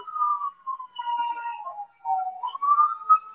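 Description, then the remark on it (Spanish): Someone whistles a wavering, melodic tune for a few seconds, the pitch gliding up and down in short phrases with brief pauses, clear with no talking. “Está alguien silbando y hasta voltearon si alguien estaba silbando aquí.”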